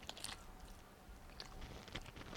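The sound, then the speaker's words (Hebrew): Soft mouth sounds of a person chewing food while sitting in a car, with a few scattered crunchy, clicky bursts over a low background hiss and no talking. “איך אני שומע את לעיסות עכשיו?”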